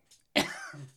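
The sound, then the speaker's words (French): A single sneeze: a faint quick intake of breath, then a sudden sharp explosive burst that trails off into a short, low voiced exhale. “à tes souhaits.”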